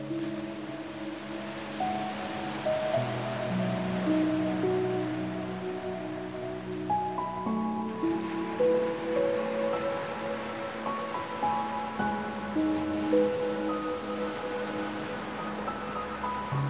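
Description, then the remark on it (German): A steady, soft rush of ocean waves washing onto a tropical island beach and pulling back fills the background beneath slow, sustained ambient music tones, continuous throughout with no voices. “Du beobachtest dieses beruhigende Hin und Her, lauschst dem entspannenden Wellenrauschen und lässt deinen Blick über das unsagbar weite Meer schweifen, bis hin zum Horizont.”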